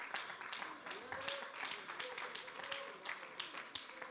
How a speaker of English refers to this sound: Clap your hands to the Lord right now and give him some praise.